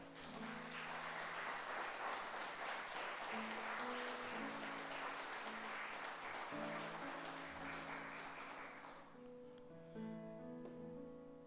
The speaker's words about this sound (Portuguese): Dá uma salva de palmas a Deus aí.